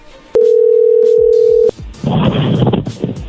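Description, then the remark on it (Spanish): A loud, steady telephone tone sounds for over a second, then cuts off with a click, followed by crackling, noisy line static as a call to a man's phone number connects. “nos dio el teléfono del hombre con el que habla su esposa y le marcamos y esto fue lo que pasó.”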